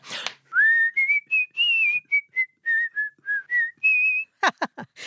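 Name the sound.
human whistling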